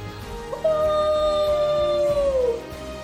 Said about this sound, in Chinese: 那声悠长的、凄厉的嚎叫声，似乎震颤了三十三重天。